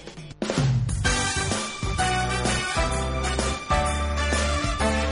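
A song with a female singer over a full, steady instrumental backing, loud, playing continuously with a brief dip near the start.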